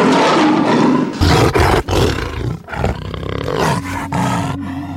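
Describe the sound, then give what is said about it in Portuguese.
A lion roars loudly, a rough, rumbling bellow that surges in several heavy bursts over a few seconds, with no voices. “Ele fez o sol, a lua, as estrelas, fez os leões.”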